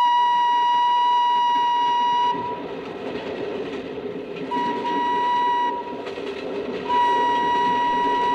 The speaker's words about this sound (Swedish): Det rytmiska ljudet och tågets skakningar har vaggat honom till sömns.